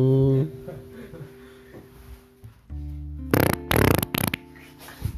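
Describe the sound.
A low, buzzy fart rumbles, followed by a few loud, sharp noisy bursts in quick succession, with faint murmuring voices in the background.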